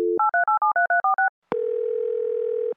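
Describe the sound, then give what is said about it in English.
A quick run of about nine touch-tone keypad beeps on a phone, a brief pause, then a steady, buzzing telephone tone that holds loud and clear with no one talking. “Robert, answer your phone.”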